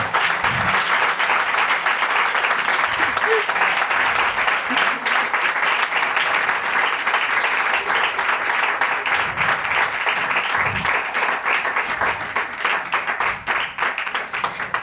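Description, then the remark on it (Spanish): A crowd applauds steadily for about fifteen seconds to welcome a programme's guests, a dense, bright wash of many hands clapping at a constant loudness with no talking over it, easing slightly near the end. “Y lo que vamos a hacer es, para desestresar este momento, recibir con un pedazo aplauso, porque no lo hemos dado, y es que nuestros invitadas reciben un aplauso lo primero programa.”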